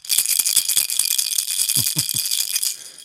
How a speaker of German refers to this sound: Und äh, man muss halt würfeln und in diese Raketen sind so Kugeln drin und das hört sich dann immer.